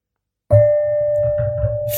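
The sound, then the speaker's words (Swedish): A small gong is struck once with a stick that has a knob, and its bright, steady metallic tone rings out loud, sustaining without fading. No one speaks. “har tagit med sig en liten gonggong. En pinne med värderad eh, knopp. Alltså det är som man ska slå på, gonggongen.”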